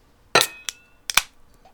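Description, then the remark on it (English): A shot glass knocked against a tabletop several times as a table cheers before taking a shot: sharp clacks with a brief glassy ring, the first loudest, then a lighter tap and a quick double knock. No talking. “Ooh, I just gave you the uh, the table cheers there, bro.”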